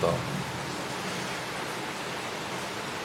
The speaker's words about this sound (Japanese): 雨の音が聞こえすぎて、僕の声が聞こえなかったりするのかなうん、いい音ですよね結構好きなんですよね雨の音